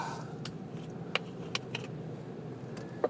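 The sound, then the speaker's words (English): Carbonated water from a SodaStream, with matcha powder put in it, fizzes softly, with scattered sharp crackling pops of bursting bubbles over a low, steady background rumble. No one speaks. “That is carbonated water from a soda stream.”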